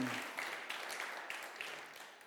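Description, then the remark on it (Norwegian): A crowd claps steadily for a volunteer work crew, a dense wash of many hands with scattered sharper claps, holding fairly loud and then thinning slightly toward the end. No voices are heard. “så langt skal vi gi den gjengen en god applaus, for det syns jeg de fortjener.”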